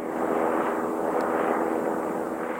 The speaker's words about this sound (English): At the protest camp, a helicopter flies overhead. The camp is adjacent to the pipeline construction area, and the demonstrators are still under surveillance.